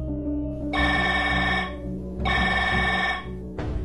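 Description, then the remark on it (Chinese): A telephone rings in repeated bright, buzzy bursts, two full rings about a second long with a pause between, and a third just starting at the end, over a steady low hum. “啊，下午一两点钟，完我接的电话，完我说喂。”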